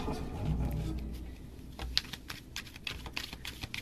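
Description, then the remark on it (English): A deck of cards being shuffled, a run of crisp, irregular clicks and soft flutters over a low background hum, with no one speaking. “while she's shuffling”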